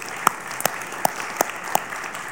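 A church audience applauds the children's director, a steady wash of clapping with a handful of sharper claps popping out at an even, regular pace over about two seconds, moderately loud and without voices.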